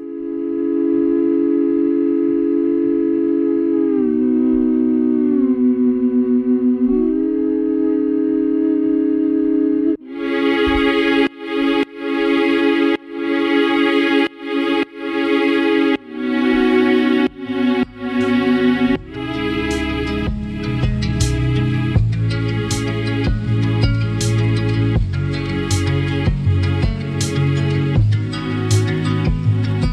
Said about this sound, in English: cool layer that comes in around 3:30 is strings and … humming, running through a side chain with the kick drum